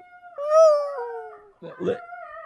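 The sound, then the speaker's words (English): A dog lets out a long, drawn-out howl that slowly falls in pitch, fairly loud; a person starts talking as the howling carries on underneath. “Hey, easy, easy, Ozzy. Watch your language.”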